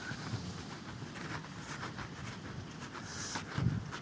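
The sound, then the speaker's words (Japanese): Water rushes through a sewer in a steady, continuous hiss and roar that holds at an even, moderate level from start to finish, with no voices present. “ザーって聞こえると思いますけれども、これは下水の音ですね。”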